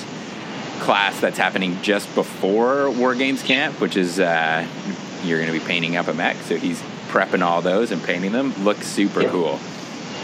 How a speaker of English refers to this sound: and just like you could probably hear it in the background, but I got my 3D printer.